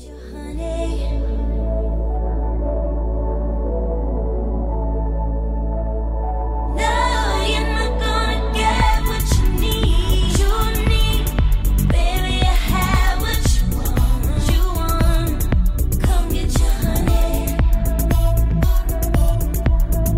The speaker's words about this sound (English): Now, on the subject of our album of the week, a very hotly anticipated record